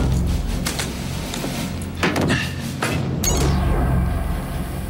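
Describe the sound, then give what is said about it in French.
A door bearing no name or number is handled and swung open, with a few knocking clatters of the latch and frame, then a drawn-out scraping creak against a low steady rumble. “Je crois que c'est cette porte, mais il n'y a pas de nom ni de numéro.”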